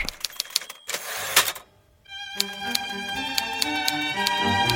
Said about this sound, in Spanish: El continuo golpeteo de los símbolos que quedaban sellados con la tinta. Cada tanto, había que dar vuelta al carrete de la tinta para aprovechar las delgadas telas negras con las que se ayuda a no olvidar.